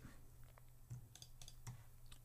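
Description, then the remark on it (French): A handful of quick, light clicks from computer keyboard keys, irregularly spaced over a soft low hum, fairly quiet with no one speaking, as the delete key is pressed to remove a selected section of audio in an editor. “Et là, on va faire carrément supprimer sur le clavier.”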